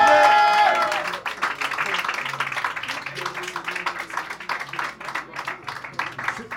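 An audience at a poetry night bursts into steady applause for a poet, with scattered cheers and whoops, dense clapping sustained for several seconds after a brief loud musical sting at the start.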